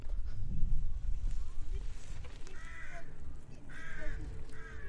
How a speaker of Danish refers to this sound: Jeg ved ikke, om man kan høre fuglene i baggrunden. Det er også en skøn, skøn... Ja, det er jo en forårsdag, men det føles virkelig som sommer. Der er dejligt varmt og blå himmel.